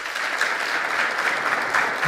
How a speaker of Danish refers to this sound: Og nu tager jeg lige en vejledende afstemning her på gymnasiet. Altså, hvor mange klapper for prompte? Og hvor mange her klapper på forperson som årets ord?